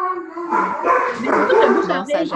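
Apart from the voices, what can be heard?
dog barking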